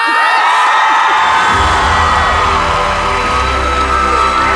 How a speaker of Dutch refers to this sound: Geef haar alsjeblieft het applaus dat ze verdient. Dames en heren, hier is Pamelita.